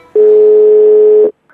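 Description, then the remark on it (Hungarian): A single steady, fairly loud telephone ringback tone on a call from New York Knicks GM Scott Perry to Knicks president Steve Mills sounds for just over a second, then cuts off into silence with a faint trace of something afterward. “Na, kicsöng, ez jó jel.”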